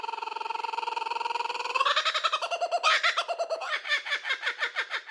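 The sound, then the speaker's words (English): A short, loud bird sound effect plays alone: a steady warbling trill that shifts into a quick run of bright, bouncy chirps, with a cartoonish, almost giggling character, for about five seconds. “Slap that bird. Let's get giggling.”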